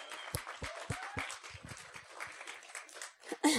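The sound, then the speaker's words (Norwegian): An audience at C3 Fredrikstad church applauds the song team, a dense wash of many hands clapping at a steady level, with a few sharper individual claps standing out and a brief lull before a final burst. “Jeg vil bare at vi skal gi en utrolig stor applaus til låtsangsteamet.”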